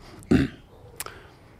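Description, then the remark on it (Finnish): A single short, loud cough, followed by quiet with a faint brief click about half a second later. No one speaks. “Yskin pikas.”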